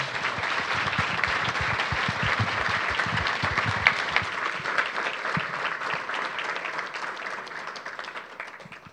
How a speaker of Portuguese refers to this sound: Acho que podemos dizer obrigado, podemos? Podemos expressar isso com uma salva de palmas.